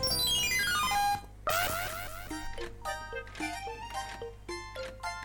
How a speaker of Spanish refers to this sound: Bueno, ese ruido que se escucha hacia adelante es el cofre.